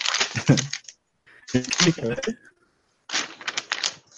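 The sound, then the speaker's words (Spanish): Three short bursts of crisp paper rustling and crinkling, separated by brief pauses, as newspaper pages are flipped and handled while being skimmed. “Apenas estaba ojeando mi periódico, Ernesto. Escucha cómo ojeo mi periódico.”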